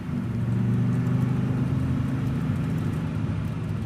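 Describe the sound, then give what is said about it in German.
A car engine hums steadily with a low, droning rumble and slight shifts in pitch as the car is driven around in circles, looking for the way out. No voices are heard. “Ich fahre noch eine Runde, bis wir den Ausweg gefunden haben.”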